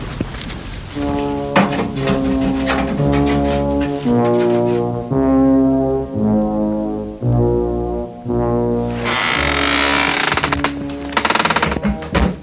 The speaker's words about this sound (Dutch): Dit is je veiligheidsklep dus? Ja, ja, Maar doe maar niet te veel, want anders kan ik straks niet meer koken.